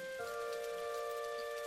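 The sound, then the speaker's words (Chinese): Soft, steady rain patters without a break on a garden of pomegranate, mulberry and walnut vines, a faint continuous hiss of falling drops, with a low sustained humming tone running underneath. “在潇潇的雨声中萧瑟不宁，回忆着光荣的过去。”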